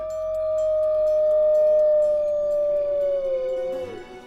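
A single long wolf howl holds one steady, mid-pitched tone for nearly four seconds, sliding gently downward before breaking off, loud and unaccompanied by speech.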